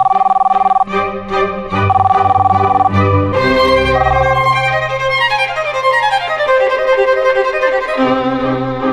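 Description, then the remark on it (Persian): A telephone rings with a loud electronic ringtone, a melody of repeating bright tones that shift into gliding descending notes, playing continuously with no one talking. “داشتم میگفتم اوف باز تلفن”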